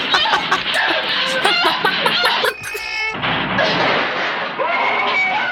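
Hens cluck busily, with overlapping calls running almost nonstop, a brief higher, drawn-out squawk in the middle, then more steady clucking.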